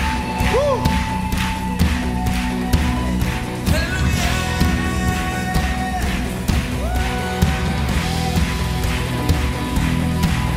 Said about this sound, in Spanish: Fuerte ese grito de gozo.